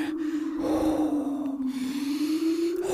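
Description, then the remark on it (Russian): Loud snorting breathing, a person breathing onto another's face to warm him, rasps on steadily for a few seconds with a hoarse, droning tone and barely any pause between breaths. No one speaks. “Ты меня согрел. Все, теперь не сопи.”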